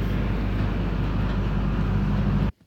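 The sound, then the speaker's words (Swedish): A loud, continuous grinding rumble of ice scraping along a ferry's hull, layered over a deep engine drone, holding steady for a couple of seconds before stopping abruptly, on an 800-metre car ferry crossing near Kalix in Norrland, Sweden, in freezing winter. No voices. “Jag måste berätta det här då, att det var ju som man hörde där, is.”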